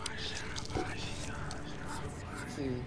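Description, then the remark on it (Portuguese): Hushed, breathy whispering runs steadily throughout, low in volume, with a faint airy hiss and a few brief tonal murmurs but no clearly spoken words. “Conforme o sangue foi escorrendo e caindo no chão, tu começava a ouvir do teu sangue, meio que whisper, sabe?”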